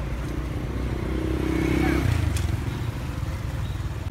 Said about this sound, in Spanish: Vean los coches cómo se cambian. Vienen de este lado, pero cuando se tienen que cambiar para este lado, ¿ya vieron?